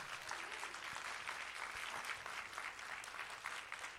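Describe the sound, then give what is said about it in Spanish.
An audience gives a loud round of applause to the Lord, a dense, continuous wash of many hands clapping at an even loudness throughout, with no voices standing out. “Vamos a dar un aplauso fuerte al Señor si usted lo recibe.”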